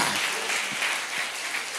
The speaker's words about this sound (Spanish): Y si usted lo puede creer, déle un aplauso fuerte al Señor.